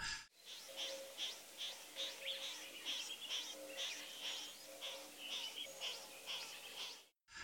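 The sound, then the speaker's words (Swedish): Monotonous, scratchy display calls repeat in a steady, rapid series from birds circling overhead in level flight before diving, harsh rasping notes overlapping continuously at moderate volume with no voices. “Eh, men innan vi gör det så, så, ska jag säga att ni kommer att höra att inledningsvis, innan dyket kommer och, och, och det blir lite action i spelet, så hör man ett monotont skrapigt läte”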